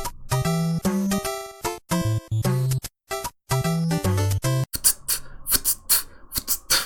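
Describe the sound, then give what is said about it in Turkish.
A chiptune melody of bright square-wave tones gives way to a run of sharp white-noise hi-hat hits, rapid and rhythmic, clicking along crisply with no voices. “white noise'lar var. Yine şeyi destekleyen hi-hat e, sesi sağlayabilen.”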